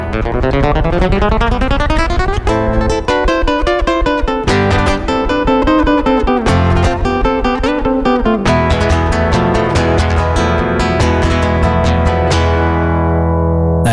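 A Spanish guitar solo plays alone, loud and steady, with rapid runs of bright plucked notes, a climbing opening phrase and shifting rich harmonic tones throughout.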